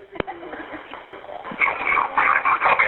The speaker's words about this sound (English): Whoa, my dog just got on her lap.